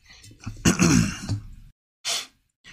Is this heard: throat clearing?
yes